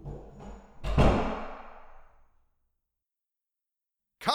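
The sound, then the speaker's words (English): A car pulls away on the street outside, heard as a muffled low rumble that swells into a sudden burst of noise, then fades over a couple of seconds into silence. “I'm going to pause because of someone driving their car badly in my street”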